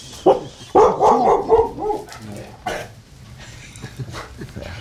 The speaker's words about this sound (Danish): Det er jagthunden, som har fået færd af en bjørn, der er på vej hen.